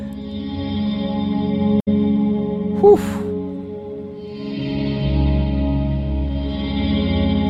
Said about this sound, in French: Black Hole, en fait, elle est très, c'est une reverb qui est très spatiale, tout est dans le nom, mais c'est, vraiment fait pour créer des très grands espaces. Écoute ça, écoute ça.